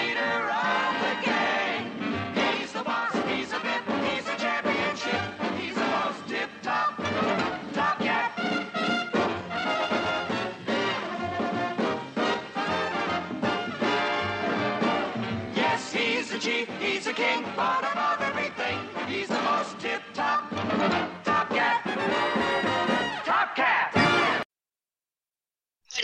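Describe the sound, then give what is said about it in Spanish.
A cartoon theme song plays loudly and steadily for about twenty-four seconds, full of layered instruments and singing, then stops abruptly into a short silence. “si te pasó como a mí, que estabas escuchando la canción y ya llegaban a tu mente montones de imágenes”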